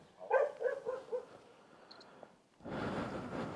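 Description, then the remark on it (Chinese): A dog disturbed from its rest whimpers and gives a few short, high-pitched yelping barks in a quick cluster, fading out before a steady rushing noise suddenly takes over. “我们好像干扰到狗的休眠休息了。”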